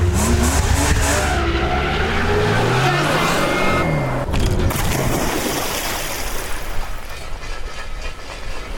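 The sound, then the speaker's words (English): A car engine revs hard with rising and falling pitch while tires screech and skid, loud, then the roar gives way to a rough, rumbling drive noise. “Get off the hood. Turn off the engine.”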